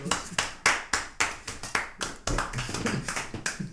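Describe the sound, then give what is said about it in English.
Hands clap in a steady, sharp rhythm, a bright smack roughly every third of a second, then the claps grow quicker and denser into a short burst of applause. No one speaks. “Oh man, give yourself a round of”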